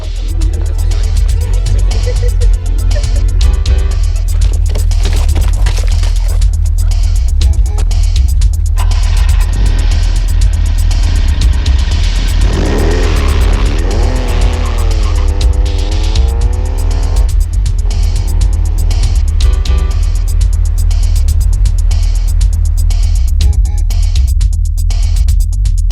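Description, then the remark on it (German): A car drives steadily along a street lined with tall cypresses and ivy, past a country-house-style terraced building, with a loud, continuous engine drone and deep low rumble. The pitch rises and falls as it accelerates, with brief tire squeals midway and no voices. “Als sie an einem Terrassenbau im Landhausstil vorüberfuhren,”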